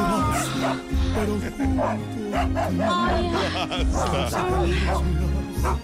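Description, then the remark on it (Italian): Several truffle dogs bark and yip excitedly in quick repeated bursts, loud, over a steady, throbbing low bass rhythm that runs underneath throughout. “Vado a slegare i cani da tartufo!”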